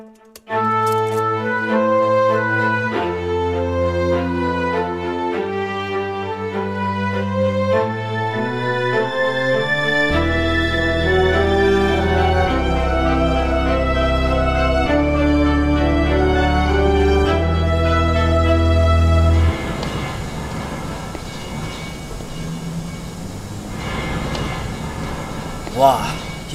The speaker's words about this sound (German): Manche von uns sind nach zu vielen Tagen hier drin taub geworden. Schrecklich. Was für eine Monstermaschine.